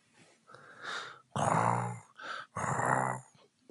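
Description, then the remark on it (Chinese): Loud, exaggerated snoring performed by a human voice imitating a leopard: a soft breath, then two heavy, rasping snores with a brief gasp between them, with no talking. “花豹的呼噜声十分响亮。”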